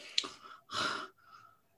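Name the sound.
imitated heavy breathing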